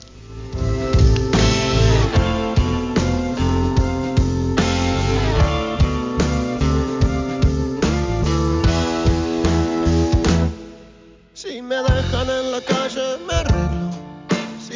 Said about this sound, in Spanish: una rolita que hace … en el 2014